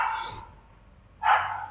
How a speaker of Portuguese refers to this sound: Temos um cão convidado é. do, do podcast.